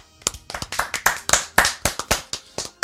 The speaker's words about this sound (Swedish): Vi tar en applåd på det.